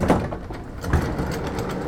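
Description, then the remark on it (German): A train door slides along its track with a steady rumbling rush, marked by a thud near the start and another bump about a second in, without voices. “Die Tür.”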